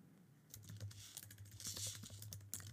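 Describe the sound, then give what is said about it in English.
Rapid, loud clicking of computer keys in a dense, continuous burst, alone with no voices, the clatter running steadily for a couple of seconds. “always yells at me because I type so loud and fast.”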